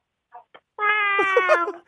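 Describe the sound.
A kindergarten child's voice imitates a cat's meow in one sustained, whiny cry lasting about a second, preceded by two short soft sounds, fairly loud, in the impression contest segment of Park Myung-soo's Korean radio show.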